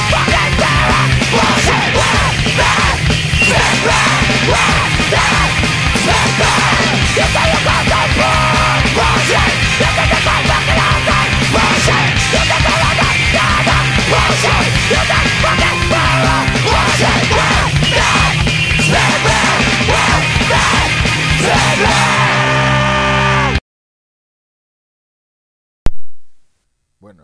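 A fast, chaotic hardcore punk song blasts loudly with distorted guitars, pounding drums and yelled vocals, then cuts off abruptly into silence after about twenty-three seconds, followed by a brief click.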